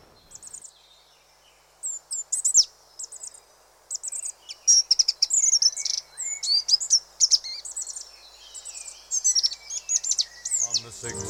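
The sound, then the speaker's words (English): A Goldcrest sings a very high, thin song in rapid bursts of tiny twittering notes, repeated many times, with faint background hiss and no talking. “So, our fifth day of Christmas, the golden ring is our tweeter of the season, Goldcrest.”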